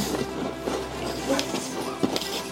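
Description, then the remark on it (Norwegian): Contestants in an eating contest chewing food vigorously, about 20 seconds into the timed round, with irregular crunchy, wet bursts every half second or so over a steady low hum, fairly loud and with no talking. “Her tygges iherdig.”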